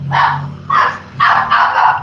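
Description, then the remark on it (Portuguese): The speaker's pet dog barks four times in quick succession, loud, with short pauses between the sharp yaps and a low steady hum underneath. “Minha cachorro resolveu latir.”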